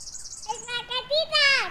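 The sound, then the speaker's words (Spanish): High, thin chirping from young birds in a nest in a series of short calls that grow louder and more insistent, with a faint steady hiss at the start and no one talking. “Mira los pajaritos. Allá están en el nido.”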